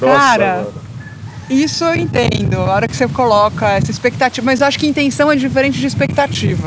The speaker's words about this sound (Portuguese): Esse som que você está escutando no fundo não é uma avalanche nem um ataque de uma manada furiosa de galinhas. É o vento mesmo.